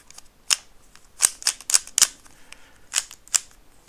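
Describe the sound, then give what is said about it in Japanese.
A Chinese-made speed cube being twisted: about nine crisp, bright plastic clicks in uneven bursts, some in quick pairs, separated by short quiet gaps, with no talking. “これはなんかあの中国製のねスピードキューブですけど”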